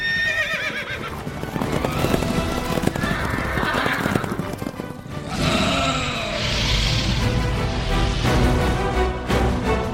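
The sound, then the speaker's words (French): A horse whinnies loudly, its shrill, wavering neighs repeating over a steady clip-clop of hooves, with a dense, busy sound bed throughout and no voices. “Allez, je te laisse, je dois enfourcher mon cheval pour aller combattre un dragon.”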